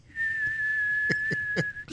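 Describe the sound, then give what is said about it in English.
A steady, high-pitched whistle holds one flat tone for nearly two seconds, a voice mimicking the shrill squeal of hearing aid feedback, with a few soft knocks and breaths underneath. “she found her hearing aid in the garbage, and it just and like Whitey, she's got like 800k in the wall. Yeah, and it whistles all the time.”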